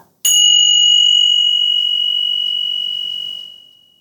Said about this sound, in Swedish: Det, kommer det är ett par klockor och jag kommer att klinga de här klockorna. Och lyssna på det här ljudet som hörs så ska du lyssna så länge du hör ljudet av klockorna. Och då börjar jag med att klinga nu.